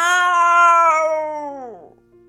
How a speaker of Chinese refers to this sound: 霸王龙发出了恐怖的咆哮。